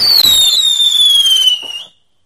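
Fireworks go off up close: a sharp pop, then a loud, piercing whistle that slides slightly downward over crackling noise for about two seconds before cutting out. No one speaks.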